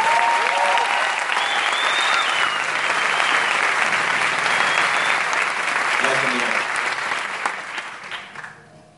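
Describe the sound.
A crowd applauds loudly and steadily, a dense wash of clapping that holds for several seconds before tapering off at the end, with faint voices mixed in.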